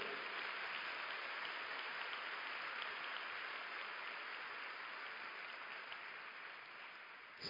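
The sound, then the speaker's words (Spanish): A church audience applauds for the blood of Jesus during a sermon, a dense, sustained burst of many hands clapping at steady loudness for the whole stretch, with no voices rising above it. “Primero, un aplauso para la sangre de Jesús.”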